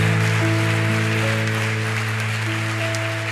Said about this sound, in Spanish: Démosle fuerte ese aplauso al Señor por sus vidas. Amén. Amén.